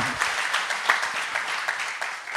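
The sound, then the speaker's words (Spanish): Dense, steady applause from an audience, given for the Lord during a sermon, a continuous crackle of many hands clapping at once with scattered sharper claps standing out, sustained at an even level throughout. “Un aplauso al Señor, está tremendo.”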